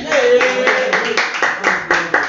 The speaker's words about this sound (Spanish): una aplauso.